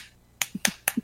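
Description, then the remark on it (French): A quick, rhythmic run of about six sharp slaps, crisp smacks alternating with duller thuds, made by someone imitating the sound of bodies slapping together during sex, with no talking. “Quand, quand, tu as, quand tu as une nana, et que le seul bruit que tu entends, c'est le bruit de tes bouliches qui font.”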